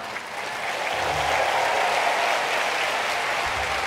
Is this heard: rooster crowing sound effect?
no